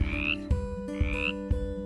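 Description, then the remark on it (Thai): Frogs croak in a steady, rhythmic series of about four quick pulses, fairly loud, with a higher chirping call weaving over them and no voices present. “แมลงตัวน้อยบินหนี และกบไม่มีแมลงกิน ไม่ว่าจะเป็นกบเล็กกบใหญ่ ก็กระโดดหนีจากที่นี่ไปจนหมด”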